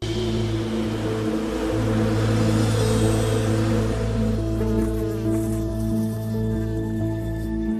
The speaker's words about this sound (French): l'occasion de s'approcher plus près, beaucoup plus près d'une ruche.